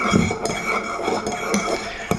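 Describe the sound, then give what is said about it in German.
Ceramic clinks and light tableware knocks, several short bright taps scattered over two seconds, as coffee cups touch in a toast and are set down, with no talking. “Und ich hoffe, so, Prost Kaffee, Leute.”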